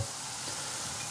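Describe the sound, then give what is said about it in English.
A batter-coated iron dipped into hot lard gives off a steady crackling sizzle with a hissy high edge, continuous and even throughout, with no voices. “That's the sound of the batter covered iron being dipped into the hot lard.”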